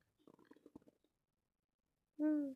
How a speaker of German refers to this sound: Da hustet jemand.